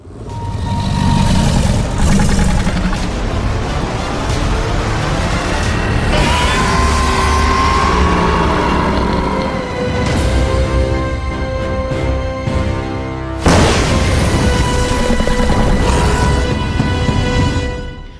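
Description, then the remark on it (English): A huge dinosaur-like creature from a trailer clip roars loudly, a long, rumbling, layered bellow that surges in several waves with grinding, growling overtones, with no talking. “I feel like that roar is fairly unique when it comes to the Jurassic Saga”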